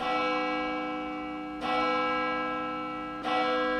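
A large church bell tolls slowly, three strong strikes about a second and a half apart, each leaving a rich, humming resonance that rings on until the next stroke. No voices.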